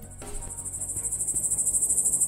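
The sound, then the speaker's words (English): A dense chorus of grasshoppers chirping in Mount Isa, a loud, high, continuous buzz that pulses in a fast steady rhythm, with a low rumble of background noise underneath and no voices. “Forget the coronavirus, the grasshoppers are back in Mount Isa.”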